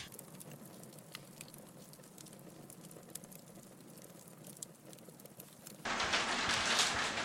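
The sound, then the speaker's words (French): Irregular sharp taps and clatter of very large hailstones striking windows over a steady rushing patter, growing into a dense, louder downpour near the end. No one speaks. “En fait, c'est la grêle qui tape euh, contre, mes fenêtres, mais c'est des grêlons énormes.”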